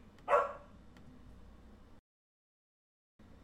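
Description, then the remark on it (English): A female dog lets out one short, sharp bark, fairly loud, then falls quiet over low background hum before the sound cuts out entirely. “The dog needed to re up on a treat so she would stop barking.”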